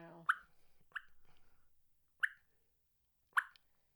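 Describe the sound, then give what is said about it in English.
Four sparse, irregularly spaced plinks played on a game call imitate falling raindrops. Each is a short, bright drip that fades quickly, heard alone with quiet gaps between. “I'm, I'm, the little the, they call them raindrops. Yes, do the little raindrops.”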